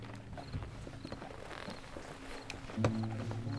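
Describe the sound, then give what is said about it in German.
Horse hooves clip-clop in a steady rhythm as a horse pulls a wobbly cart driven by a woodcutter, with some low rumbling and a brief tonal sound near the end; nobody speaks. “Irgendwann hörte er Pferdegetrappel hinter sich.”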